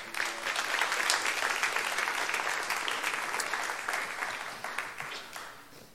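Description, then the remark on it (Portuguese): A large audience at a Tuesday night church service claps loudly and steadily for Jesus, a dense wash of applause for several seconds before gradually thinning out toward the end. “Se é para Jesus, aplauda mais forte.”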